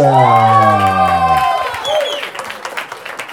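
On the Salotto stage, a long, drawn-out shouted note rings out for about a second and a half, then gives way to the audience clapping and cheering a singer-songwriter on stage for the first time, with scattered whoops rising over steady applause.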